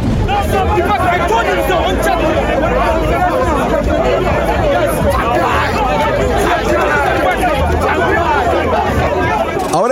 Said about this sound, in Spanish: escucha el audio del relajo que se estaba haciendo ahí